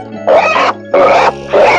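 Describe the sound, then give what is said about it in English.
Three loud, raspy pig grunts in a steady rhythm, each lasting about a third of a second, with a low hum continuing underneath. “I'm a champ, said the pig.”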